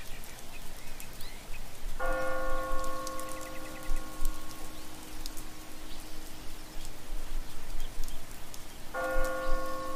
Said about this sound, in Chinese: 这时，从遥远的高处传来几声空灵的钟声